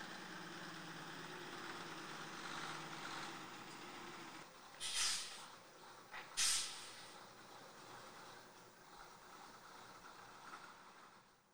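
The engine of a vintage 1962 bus, all original, runs with a steady, droning rumble throughout, joined midway by two short sharp hissing bursts; no one speaks.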